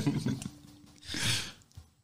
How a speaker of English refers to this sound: I've got a yawn coming. I'm going to get that out of the way.